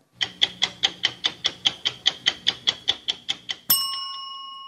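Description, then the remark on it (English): The trademarked stopwatch sound of the CBS program 60 Minutes: a stopwatch ticks loudly in a steady, even rhythm, about sixteen crisp clicks, then stops on a bright ringing chime that slowly fades. No one speaks. “CBS received their trademark approval for this sound in 2013, 45 years after the corresponding show first aired.”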